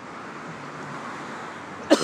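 A single sharp cough from a person who inhaled dust breaks in near the end, fairly loud, after nearly two seconds of steady, quiet background hiss with no talking.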